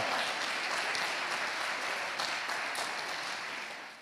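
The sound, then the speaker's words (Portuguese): A church audience applauds for Jesus in a steady, dense wash of clapping that holds for several seconds before beginning to fade at the end; no voices stand out. “Aplauda Jesus por isso.”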